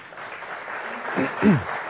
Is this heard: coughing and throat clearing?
no